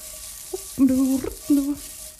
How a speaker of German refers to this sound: Ich schüttel das jetzt ein bisschen und schwenke das oder mache das mit dem Pfannenwender, sodass alles mal ein bisschen mit Öl bedeckt ist.